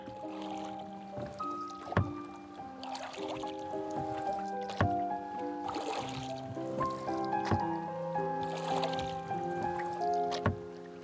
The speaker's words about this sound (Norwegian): Det vesle plasket av dråper i havet sementerer stillheten. Sakte, mot en annen sol, dreier jeg båten i tåka. Livets tette ingenting. Og ror, ror.